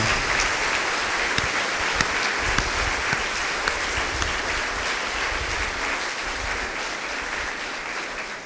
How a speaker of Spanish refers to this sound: Chicos, felicidades, nos despedimos con un fuerte aplauso para Dios, porque se luce.